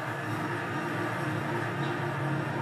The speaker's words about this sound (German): Okay, das war ein bisschen viel zu laut. Das ist hier doch nur Feuerwerk.